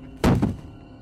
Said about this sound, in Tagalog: Sa halip pinuntahan niya ang cold storage na nasa bandang dulo ng pasilyo. Lumapit siya sa pinto kung saan galing ang kaluskos na nagiging malalakas ng kalabog.